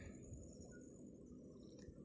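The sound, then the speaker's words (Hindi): Night insects keep up a steady, thin, high-pitched chirring that runs unbroken throughout, heard at night from a rooftop under many stars. It is faint over a soft low rumble of outdoor background noise. “जानवर की चूँ चूँ की आवाज़ जो रात को करते हैं”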